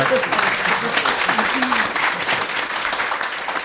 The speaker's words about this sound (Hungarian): Azért, mert ilyen tapsot kapok a pisilésre.